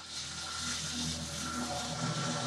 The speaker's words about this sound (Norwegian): Nå kommer det en gressklipper utafor her. Ok, jeg må rett og slett lukke vinduet. Jeg får bare beklage det bråket. Det er typisk. De skal begynne å klippe plenen utafor vinduet mitt akkurat nå.